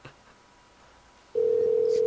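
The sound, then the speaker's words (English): A telephone call being placed: after a second of near silence, a steady, loud single-pitched line tone starts and holds unbroken to the end. No one speaks. “If Ruby doesn't answer, we can always have her as a guest.”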